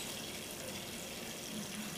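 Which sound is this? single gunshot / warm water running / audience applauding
warm water running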